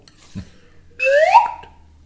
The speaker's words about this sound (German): möchte ich hiermit äh, ähm, die Pfeife der Vorbildlichkeit spielen, um dir zu applaudieren. Moment. Oh.